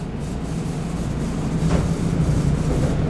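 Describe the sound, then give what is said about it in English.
A Green Line light rail train rumbles steadily and loudly, with grinding, rubbing wheel noise and a brief hiss of air brakes midway. No one speaks. “the Green Line, and the Green Line has a train that goes right by my house.”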